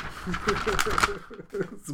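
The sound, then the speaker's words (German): A sheet of paper, a note, is crinkled and rustled in quick bursts for about a second to make noise, while a voice murmurs underneath and continues after the rustling fades. “Hast du Plastiktüten, mit denen du rascheln äh, kannst? Warte, ich habe hier so einen Zettel.”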